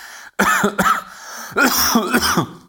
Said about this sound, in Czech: Já jsem doufal, že se tohohle zbavím na tom Tenerife, že tam jdu do tepla a že se vlastně uzdravím, protože jsem předtím kašlal a furt kašlu, jako hned po návratu.